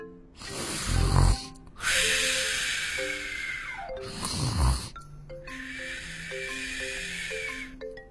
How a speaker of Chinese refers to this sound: 小羊羔在老狼的耳边轻轻的打着鼾。